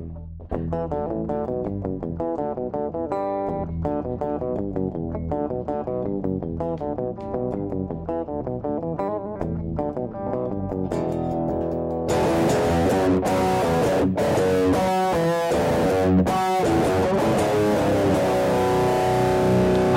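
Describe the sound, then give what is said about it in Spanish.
A rhythmic electric guitar riff opening a rock album repeats on its own, then drums and a loud, distorted full band crash in partway through and drive on at high volume. “Y desde ahí ya tenemos señales de la gran guitarra”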